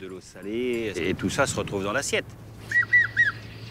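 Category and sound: bird, bird calls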